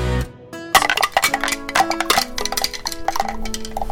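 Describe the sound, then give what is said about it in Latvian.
Wind chimes shaped like a small sailing boat tinkling in an irregular cascade of bright metallic strikes, each note ringing on so the tones overlap and shimmer, fairly loud throughout with no voices. “Te ir vēja zvani, bet te ir tā kā kuģītis ar buru.”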